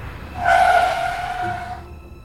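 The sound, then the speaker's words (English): A car brakes suddenly late at night on the streets of Pyongyang, its tires letting out a loud, sustained screech that lasts over a second before cutting off, then low road rumble remains. “Late one night, a car braked suddenly on the streets of Pyongyang.”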